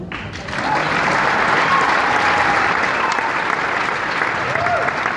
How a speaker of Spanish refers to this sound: ¿Tengo un aplauso?